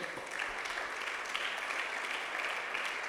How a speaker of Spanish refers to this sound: Dale un aplauso al Señor, hermano amado.